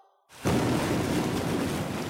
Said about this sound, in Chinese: 一声响，那一团水猛地炸开，水滴四处飞溅，最后落在地上。